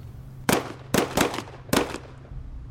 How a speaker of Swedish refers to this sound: plötsligt hör Martin skott nere från Bävedalsvägen